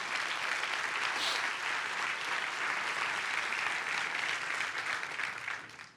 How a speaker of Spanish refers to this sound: Le puede dar un fuerte aplauso a Dios por eso.